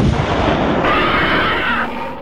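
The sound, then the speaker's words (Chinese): An air cannon fires at a monster and explodes in a loud, dense blast that becomes a sustained roar of rumble and hiss for about two seconds, then eases off slightly at the end. No voices. “小夫一直没打着他，胖虎从后边突然发动袭击，在怪物还没发现他的时候，他就开炮了。”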